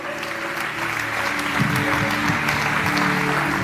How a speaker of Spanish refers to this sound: Dale un fuerte aplauso a Jesús y dale toda la gloria a Él.